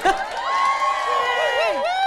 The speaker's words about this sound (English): How great is that? Round of applause for the curtain.